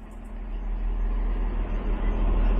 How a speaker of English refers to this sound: So, waiting at the train station, I've never seen so many carriages on a train before. I think it's something that always really annoyed me is that they had very few carriages on a train, but I guess because of COVID 19, they're having to put on more